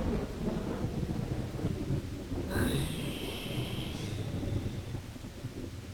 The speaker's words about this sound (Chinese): 雨将城门紧紧困住，哗哗的雨声从四面八方袭来。